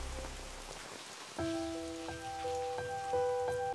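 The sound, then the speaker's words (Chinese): Heavy rain pours in a steady, dense hiss. After a moment, soft music with long sustained notes comes in over the downpour, and the rain keeps going underneath. “今天又下了大雨”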